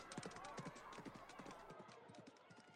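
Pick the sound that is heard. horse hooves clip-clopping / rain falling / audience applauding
horse hooves clip-clopping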